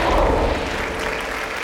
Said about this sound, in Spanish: Amén, denle un aplauso a